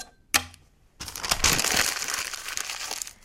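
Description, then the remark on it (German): Paper is crumpled into a ball up close, a dense, continuous crackling and crinkling lasting a couple of seconds, preceded by a single sharp tap. “Der Papierball”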